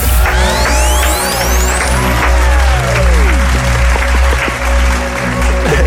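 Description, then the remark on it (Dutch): Steady applause from a crowd after a live song, heard through a telephone, fills the whole stretch, a dense clatter of clapping with faint whistling tones sliding through it and a low hum underneath. “Ik hoor zelfs applaus door de telefoon heen, dus dat is echt...”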